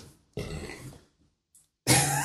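Two loud burps, the first drawn out and rumbling, the second erupting abruptly after a brief pause, with no talking around them.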